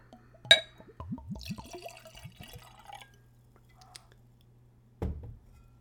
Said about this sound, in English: Okay, it's got a metal screw cap, so let's open it up. And let's give it a pour.